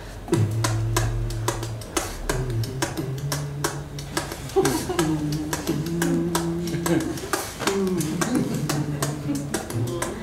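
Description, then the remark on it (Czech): A vocal beatbox groove made with an inward-breath technique: quick, crisp clicks and snare-like hits in a steady rhythm, with a hummed bassline underneath, produced by one performer with no talking. “A najednou jsem si vytvořil takovou techniku, to bylo jako vevnitř”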